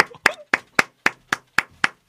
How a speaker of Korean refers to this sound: 자, 그분을 박수로 모시도록 하겠습니다. 아, 자, 어서 오십시오.